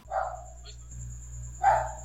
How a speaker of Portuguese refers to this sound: o cachorro tá interrompendo. É o cachorro?